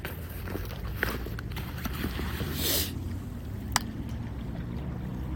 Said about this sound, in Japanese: シャッターも聞こえましたかうん、よかったよかった。シャッターを あの、三脚つけて一眼レフでね、今撮影してまして。